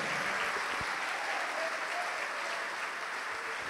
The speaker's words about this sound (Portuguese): Vamos aplaudir mais, igreja.